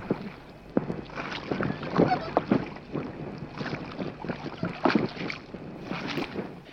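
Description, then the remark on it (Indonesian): A small boat with a little girl sitting in it drifts across a lake toward thick fog, with soft splashes and lapping, irregular knocks and dips as it moves, set against a steady wash of wind noise on the microphone. “Tapi seperti semua manusia di sini, tak ada yang benar-benar bisa mendengarku gadis kecil itu tetap duduk di perahu dan membiarkan perahu membawanya pergi.”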